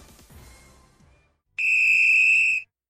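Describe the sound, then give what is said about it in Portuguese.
A referee's whistle sounds one long, shrill, steady blast lasting about a second, signaling the end of the game, after a brief stretch of low murmur and a short silence. “Apito Juiz, fim de jogo!”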